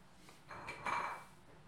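A dog's metal food bowl clanks twice in quick succession, the second knock ringing briefly. It is fairly faint, with no talking.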